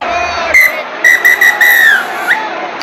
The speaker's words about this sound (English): And that's the final whistle.